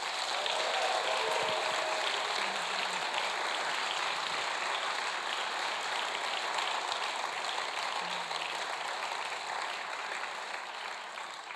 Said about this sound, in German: Bitte gebt mal einen richtig, richtig schönen Kesselkirchenapplaus.